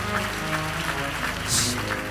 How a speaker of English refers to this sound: Clap your hands and bless God.